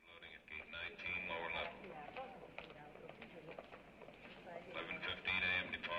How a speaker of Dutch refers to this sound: En het eindpunt van de grote autobuslijnen in de 41ste straat en 8ste Avenue.